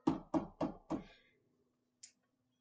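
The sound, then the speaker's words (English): Four loud knocks land in a quick, steady rhythm, like a fist pounding on a door, imitating someone arriving on a motorcycle and beating on the door, then fade, followed a moment later by one faint, short high click. “Like that, as opposed to now, new age dating is Bubba comes on the motorcycle and like is like and beats on the door.”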